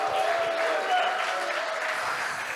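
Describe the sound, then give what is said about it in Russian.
A large audience of thousands at a church service claps and cheers steadily, dense applause with scattered whoops and shouts, loud and sustained throughout without a pause. “Вы пошумите, чтобы там услышали, что вас много”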